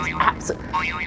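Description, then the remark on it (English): A mobile phone ringtone plays a short warbling electronic melody, with tones rising and falling in quick repeating swoops at moderate volume. “That, that's my phone.”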